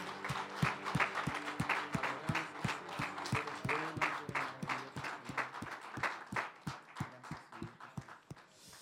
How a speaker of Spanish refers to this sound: Iglesia, Dios bendiga a cada uno de los que están aquí. ¿Puedes dar un fuerte aplauso de alabanza al Señor?